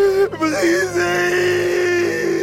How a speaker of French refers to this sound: Seul, à l'abri des regards, devant les flots infinis, il éclate en sanglots. sous son torse velu, son cœur saigne. Tordu par la douleur, il gémit et il crie